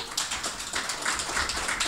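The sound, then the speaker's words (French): A crowd applauds: many hands clapping at once in a dense, steady patter that fills the whole moment at an even, fairly loud level, with no voices. “Alors, euh, vous commencez à être des habitués, je pense, hein, euh, par applaudissement. Qui vient au podcast depuis quelques fois?”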